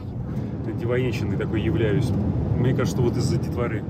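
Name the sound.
car driving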